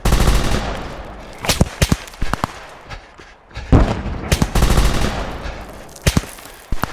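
Bursts of gunfire crack out in sharp, irregular volleys, several loud shots clustered together over a constant rumbling, noisy background, with no talking.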